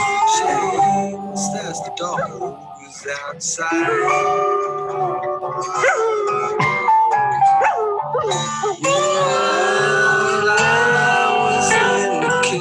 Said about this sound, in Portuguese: Cara, e a música é boa, enfim. Não, é, é, ótima, mas sabe, rock psicodélico, você bater no peito e falar, eu faço rock psicodélico.